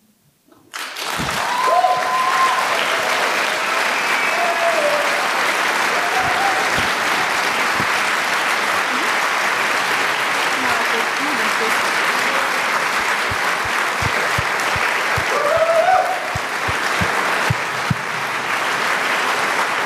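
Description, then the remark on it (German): A large audience applauds a speech loudly and steadily for about twenty seconds, a dense wash of clapping with a few faint voices and cheers rising briefly within it. “Ganz großen Applaus.”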